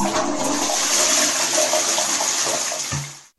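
A toilet flushes, a loud steady rush of water with gurgling that swells and then drains away abruptly after about three seconds, with no voices.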